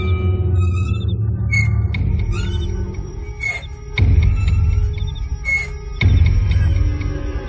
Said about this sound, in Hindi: ये पालने की आवाज है तो झट से उठ के बैठी और अंधेरे में भी बाहर से आती हल्की सी रोशनी में उसने साफ साफ देखा कि पालना हिल रहा था